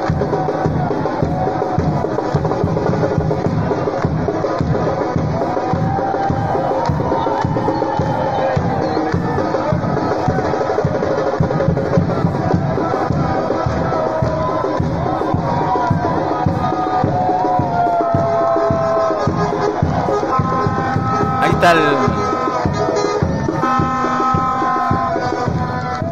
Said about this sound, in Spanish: Ahí está el momento cuando llega el bus de Melipilla a la plaza de armas de esa ciudad, con redoblantes, con bombos, con platillos y la gente cantando.